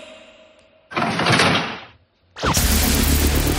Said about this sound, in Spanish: Eso es el sonido secreto de Cadena 100. Un dispensador de papel del cuarto de baño.